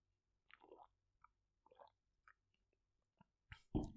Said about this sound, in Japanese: あの、麦茶のね、ホットの麦茶飲んでます。